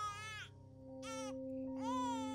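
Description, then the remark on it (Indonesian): A baby cries in three loud, wailing bursts separated by short pauses, each cry high-pitched and strained, with a steady low hum running underneath. “Tepat pada saat itu, tangisan itu pun terdengar lagi.”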